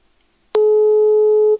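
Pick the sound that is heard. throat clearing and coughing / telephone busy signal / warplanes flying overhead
telephone busy signal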